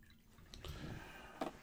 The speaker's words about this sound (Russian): Так, воды забыл налить заранее. Вода. Так. Сейчас стаканчик налью.